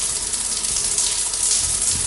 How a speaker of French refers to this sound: Il y a de l'eau ce soir oh, Il y a de l'eau à la douche, ah eh!